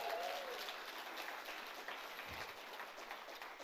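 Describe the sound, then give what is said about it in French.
A crowd applauds at the inauguration of the JAP back-to-school church service, in a steady, dense wash of clapping that holds an even level for several seconds. A faint whistle rises briefly near the start, and no one speaks. “Là, je veux du bruit, du bruit pour JAP, s'il vous plaît.”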